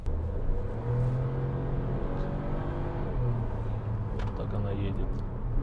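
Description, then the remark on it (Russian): The engine of a 150-horsepower car, detuned from 177 hp for the Russian market, hums steadily as it accelerates, its low drone pulling gradually upward over several seconds, with a voice speaking faintly beneath it. “Не, разгон у нее как бы Нормально, да. неплохой.”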